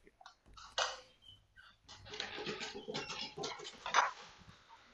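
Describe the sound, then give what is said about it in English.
Dogs whimper and whine in short, uneven bursts, with scuffling and shuffling movement and a brief higher-pitched whine near the end. “Um, let me let me uh, get my dogs down here real quick.”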